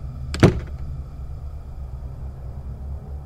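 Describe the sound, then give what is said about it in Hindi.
A door slams shut with one sharp bang as it is closed and bolted from the inside, followed by a few faint clicks, then a steady low rumble fills the rest. “police वाला trigger दबाने की तैयारी में था कि माँ ने हम दोनों को अंदर खींचा और दरवाजा अंदर से बंद कर दिया”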